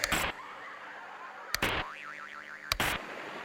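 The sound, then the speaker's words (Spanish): An old television set being tuned: three loud mechanical clunks of a channel dial, separated by steady hum, hiss and a wavering electronic whistle, with no one speaking. “Era la televisión cuando tú eras el control remoto de tu casa.”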